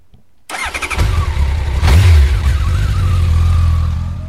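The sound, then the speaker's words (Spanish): After a moment of silence, a person's first motorcycle cranks and fires up, gives one sharp rev, then settles into a loud, steady idle. “Así que bueno, Suki se va con su primera moto.”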